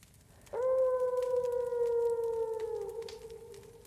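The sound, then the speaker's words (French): At midnight, a wolf lets out a single long, sustained howl, steady in pitch with a slight fall and a rich harmonic tone, starting abruptly and holding loud for a few seconds before easing off. “À minuit, un hurlement le réveille en sursaut.”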